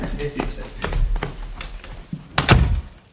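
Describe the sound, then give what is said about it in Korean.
A front door opens with a thunk, followed by scattered taps and knocks at the entryway as someone shuffles around looking for and putting on shoes, ending in a louder thump before it quiets down. “문이 열리고 신을 찾아 씻는 듯 현관 쪽이 소란스럽더니 다시 조용해졌다.”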